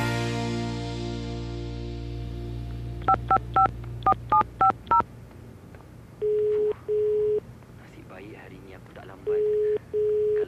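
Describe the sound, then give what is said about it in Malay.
A quick run of about eight phone keypad beeps, then the steady double-buzz of a ringing line repeating twice with no one picking up. “Mana Yasmin ni? Kenapa dia tak angkat fon?”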